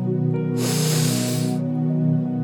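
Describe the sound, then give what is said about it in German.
A deep breath drawn in through the nose to wake up, a breathy hiss lasting about a second, with a steady low musical drone continuing underneath throughout. “Wenn du aber noch was machen möchtest heute und aufwachen möchtest, dann nimmst du jetzt einen tiefen Atemzug”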